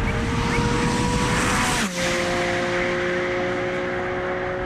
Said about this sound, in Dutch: Wouter die eh, mocht een eh, Porsche testen. Dit keer de 718 GT4 RS.